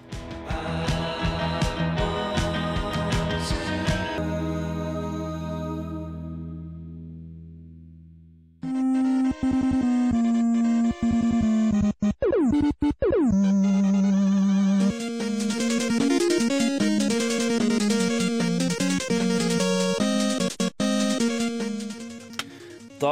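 An indie rock song plays loud and full with no talking on Radio Revolt's Valentine's Day special: a jangly opening that thins out and fades, then a dense, driving band section carries through to the end.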